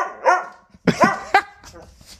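A dog lets out three or four short, sharp barks in quick bursts, with a person laughing briefly around them.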